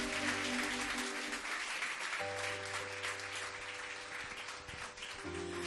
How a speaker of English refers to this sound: Give Jesus a mighty oh, hand clap, my friends.